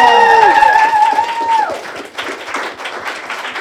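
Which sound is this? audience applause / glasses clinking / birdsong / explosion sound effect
audience applause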